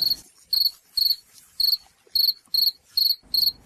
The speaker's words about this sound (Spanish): ¿Eso no son grillos? Dígame, dígame si no son grillos.